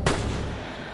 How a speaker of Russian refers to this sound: В меня выстрелили, когда я сидела с другом в машине – мы остановились на обочине под деревьями. Было темно, и вдруг